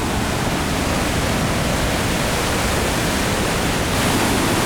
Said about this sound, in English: Coming up, you can start to hear the roar of the falls.